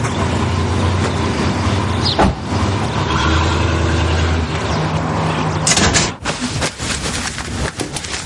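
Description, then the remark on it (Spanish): A car engine idles with a steady low hum as a woman gets into the car, then a solid clunk like a car door, after which the engine noise drops and a few small mechanical clicks follow. “La niña le da su termo y la mujer sube al coche.”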